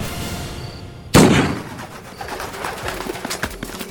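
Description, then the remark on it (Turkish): One loud gunshot from a gun fired in a cemetery cracks out of a quiet background about a second in, its deep boom trailing off into a lingering rumble with faint scattered sounds afterward. “Silahın namlusundan çıkan tok ses mezarlığın derin sükunetini bozdu.”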